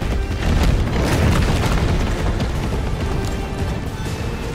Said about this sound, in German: Wütend stampfte die Kreatur auf den Boden und rannte schließlich wieder im Kreis.